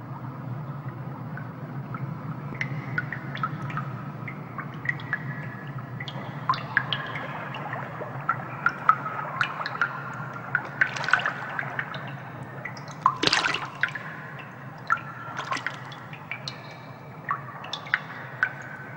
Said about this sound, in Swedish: Eh, droppar och vattenfall kan vi höra lite. Det här är en mm. typisk Tarkovsky-grej. Det finns ju andra filmer också, men nu mm. är det Stalker som gäller.